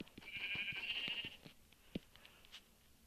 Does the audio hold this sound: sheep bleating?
yes